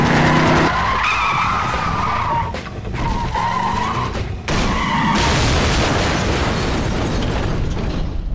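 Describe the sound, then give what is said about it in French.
Vixen's car, chased by another car, loses control: its tires shriek in a long, wavering skid, then a loud, noisy crash as it ends up in a junkyard, with a sustained rumble of wreckage carrying on to the end. No one speaks. “Malgré la réponse de Stampede, Vixen perd le contrôle de son véhicule qui finit brutalement sa course dans une décharge.”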